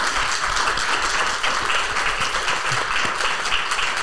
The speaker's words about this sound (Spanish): Le damos un aplauso al doctor por habernos compartido todo.